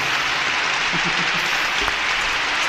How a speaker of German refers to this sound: Äh, und Applaus von mir natürlich.